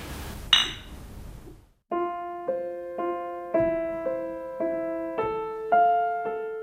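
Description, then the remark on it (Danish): A single bright clink of glasses of alcohol-free beer in a toast rings out near the start. Then a soft, evenly paced tinkling melody of bell-like notes plays on its own. “Så nu bliver der kørt nogle alkoholfri øl. Skål. Skål for det.”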